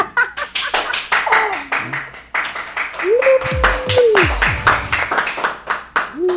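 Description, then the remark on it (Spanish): Many hands clap for a guest in a fast, uneven patter of sharp slaps that runs the whole time, with loud voices whooping and cheering over the applause midway through. “Casi me quedan mal aquí con los aplausos, ¿vale?”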